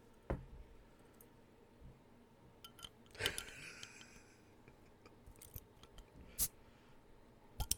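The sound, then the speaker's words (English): A bottle being opened: a few small clicks and a sharp metallic snap with a brief ringing tail, spaced out against a quiet background with no talking. “Yeah, I'll emphasize the uh, bottle opening.”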